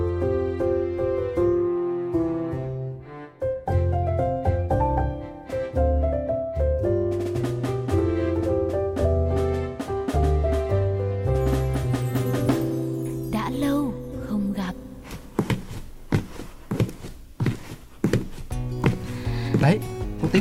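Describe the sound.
Wooden clogs clack on a hard floor in a run of sharp, irregular knocks, growing busier toward the end, heard over continuous music with a melodic, voice-like line.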